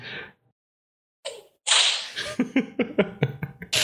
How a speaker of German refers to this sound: Was war das denn? War ein Peitschenhieb. Jedes Mal, wenn jemand Konami sagt, gibt es einen Peitschenhieb.